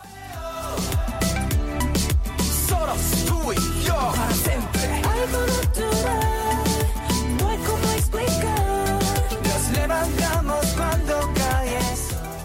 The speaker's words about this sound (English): Uh, the song is fully in Spanish. They sing Nos levantamos cuando cae el sol, which means we get up when the sun goes down. Solos tú y yo para siempre, just you and me forever.